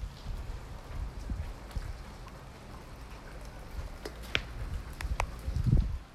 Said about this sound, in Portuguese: Enfim, voltando aqui ao som da chuva. Escutem.